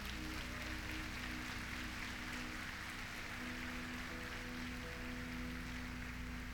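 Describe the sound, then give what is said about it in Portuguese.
An audience claps in praise of the Lord steadily for several seconds, a dense, even wash of applause with no rise or fade and no voices over it. “Pode aplaudir ao Senhor, olha demais, gente.”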